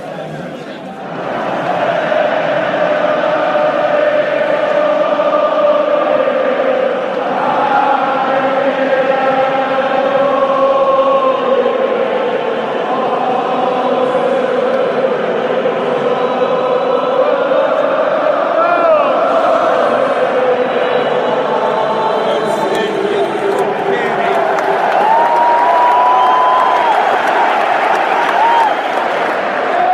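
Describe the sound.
A huge football stadium crowd at Wembley Stadium roars and chants continuously, thousands of voices blending into a loud, sustained wall of cheering with rising and falling sung tones, swelling louder near the end.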